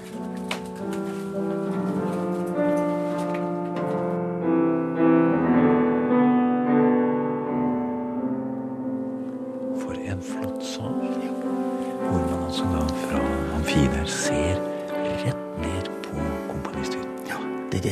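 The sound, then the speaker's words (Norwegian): Classical music, the Holberg Suite, plays steadily in a concert hall at Trollhaugen, sustained string-like melodies with a quieter, softer passage partway through before the full ensemble returns with more rhythmic bowing. “Det er Holbergsvitten.”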